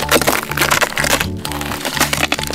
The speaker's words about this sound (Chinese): 冰块开始裂开了！